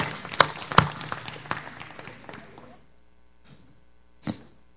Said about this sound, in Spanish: Vamos a ponernos de pie. Amén. Aplauso al Señor.